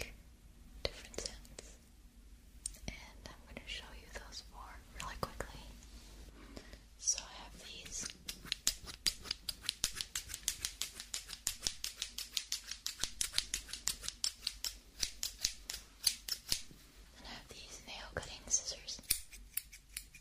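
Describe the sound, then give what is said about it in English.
Quiet scissors snipping in a quick, steady run of crisp clicks and shearing sounds, an ASMR recording of scissors cutting, with faint whispering in the background, the snips growing denser in the middle. “So let's start with uh, let's start with scissors.”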